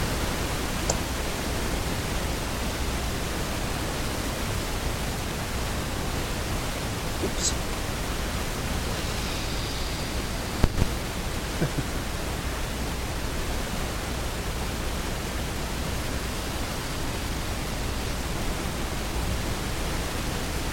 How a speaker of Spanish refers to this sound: Disculpen, es que eh, escuché un poco de estática, entonces esperaba que se fuera un poquito el sonido, pero voy a continuar, no importa.